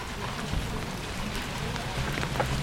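Steady rain pours down in Balakliia, a small town in Ukraine's Kharkiv region, in a dense, continuous hiss with scattered patters of drops, with faint low murmuring sounds beneath it.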